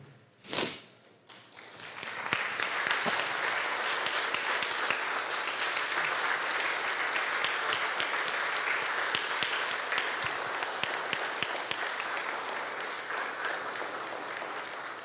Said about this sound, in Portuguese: Vamos ficar de pé, aplaudir e a gente vai orar?